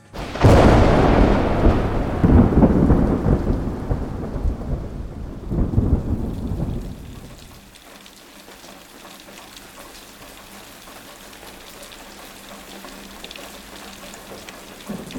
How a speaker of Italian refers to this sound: Il sole è di nuovo sparito, si riaprono gli ombrelli e arriva la pioggia. Ma la pioggia stavolta è grandine.